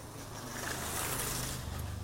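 A motorcycle passes by, its engine a steady, fairly loud rumble blended with rushing wind noise that swells slightly midway, with no one talking.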